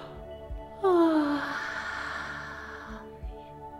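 yawning

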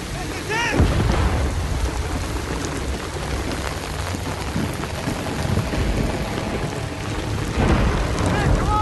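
rain and thunder

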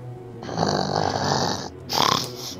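snoring

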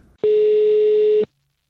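telephone ringback tone

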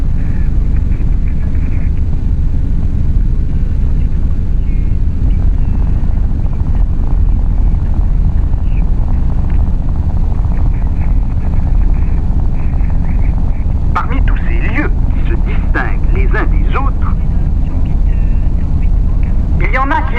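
helicopter flying

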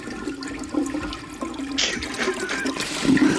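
toilet flushing

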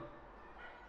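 dog barking outside

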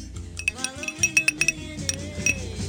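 ice clinking

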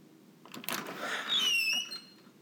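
door creaking open

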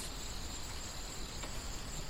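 crickets chirping

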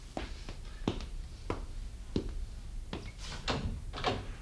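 door opening and closing

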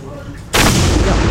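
ceremonial cannon salute shot

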